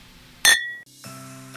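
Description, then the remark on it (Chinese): Glasses clink together once in a sharp, bright toast, leaving a high ringing tone that fades over a moment, followed by a softer, steady chime-like hum. No one speaks. “为你干杯，为你干杯！”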